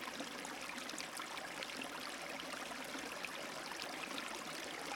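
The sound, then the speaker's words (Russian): Steady, gentle burble of river water flowing calmly and lazily, a continuous soft wash with faint trickling detail throughout, even in level, no voices. “Вы слышите шум воды, вода в реке течет спокойно и лениво.”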